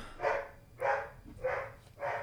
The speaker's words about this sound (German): bellt auch schon wieder der Hund.